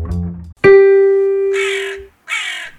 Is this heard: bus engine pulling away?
no